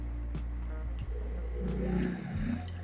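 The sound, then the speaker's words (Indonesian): A motorcycle passes by, its engine droning low and steady, then rising in pitch as it revs and goes past over about three seconds. No one speaks. “Wih, suara eh, motor.”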